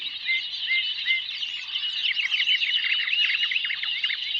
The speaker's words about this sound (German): In einem Gebüsch singt ein Vogelchor. Die Stimmen kommen allerdings aus einem versteckten Lautsprecher. Baum heißt diese Klanginstallation der serbischen Künstlerin Marina Abramovic von 1972, die für die Ausstellung in Wilhelmshaven rekonstruiert